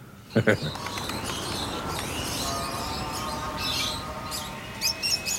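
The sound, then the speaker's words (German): Young pigeons at a loft give thin, repeated chirps and squeaks over a steady bed of rustling, busy background noise, with a sharper burst of calls near the start and again at the end. “Wieder steht das Training der Jungtauben an.”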